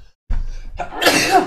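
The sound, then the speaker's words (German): A single loud sneeze: a short breathy intake building up, then a sharp explosive burst that trails off, with no talking. “Boah, Gesundheit.”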